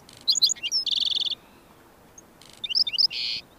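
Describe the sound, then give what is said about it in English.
A black-throated sparrow sings from thorn scrub in the southwestern desert, two bright phrases, each of a few sweet introductory notes followed by a fast, buzzy trill, clear against a quiet background. “Here, a black-throated sparrow sings from the thorn scrub.”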